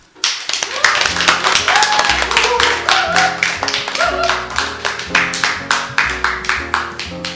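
Steady, loud clapping starts after a brief silence and continues throughout, with sustained musical tones playing underneath.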